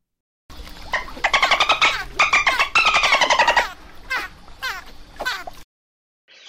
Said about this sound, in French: Voilà des bruits de dauphin.